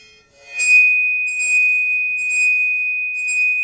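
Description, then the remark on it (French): A violin bow drawn across a metal plate makes a steady, piercing high ring that holds throughout, with four rhythmic scratchy bursts from the bow strokes layered on top. No one speaks. “évidemment la plaque devra changer puisque je serai moi-même avec l'archet en train de faire vibrer cet endroit de la plaque.”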